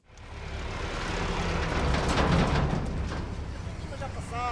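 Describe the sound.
A heavy tractor engine rumbles past, a tractor loaded with grapes returning after midday to the centre of Tó on the Planalto Mirandês in Trás-os-Montes; its deep throbbing drone swells to a peak and then fades as it moves away, with a brief voice-like tone at the very end.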